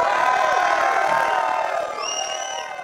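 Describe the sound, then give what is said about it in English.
A large crowd roars and cheers in a sustained, loud wall of voices, with a few higher whoops and whistles rising above the din toward the end. “That was a roar right there.”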